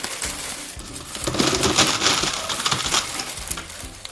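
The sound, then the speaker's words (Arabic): Pieces of nuts clatter and rattle continuously as they mix with sweets in a basket woven of palm fronds, called a makhlaf, on Gergean nights, with dense clicking that swells in the middle and no voices. “صوت جهور أسمعه في كل مكان صوت له أعذب الألحان نغم قطع المكسرات واختلاطها بالحلويات في سلة من سعف النخيل سميت بالمخلاف”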